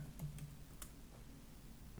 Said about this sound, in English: I'm typing it. Twin Towers costume.